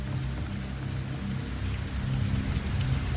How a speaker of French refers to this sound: Et sur tout le département, des pluies diluviennes qui rentrent jusque dans cette maison. Donc là, on est au premier étage et euh, l'eau, en fait, elle s'infiltre euh, bah, par ici, voilà.